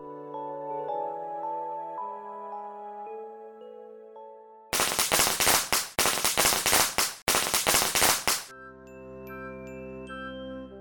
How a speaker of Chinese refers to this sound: 当新年爆竹声响起时。